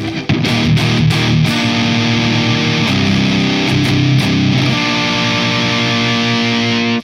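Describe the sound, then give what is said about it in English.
A heavily distorted electric guitar, played through a Maleficent pedal in front of an Axolotl pedal, plays loud, thick sustained chords with a few sharp stabs at the start, the saturated tone ringing out steadily with no voices over it. “now let's see what it sounds like in front of the axolotl.”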